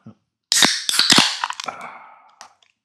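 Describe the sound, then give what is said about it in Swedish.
Cans of Norrlands Djup beer cracked open, one each: a quick cluster of sharp metallic snaps followed by a loud, fizzing hiss that fades over a second or so, then one small click near the end. “Och hoppas att alla hörde det ljuvliga ljudet av en ett stycke var, Norrlands djup var det då?”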